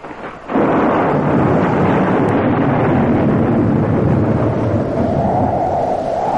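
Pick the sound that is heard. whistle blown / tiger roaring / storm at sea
storm at sea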